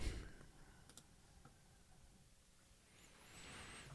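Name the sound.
computer mouse clicking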